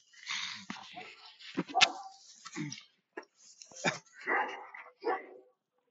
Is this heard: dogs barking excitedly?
yes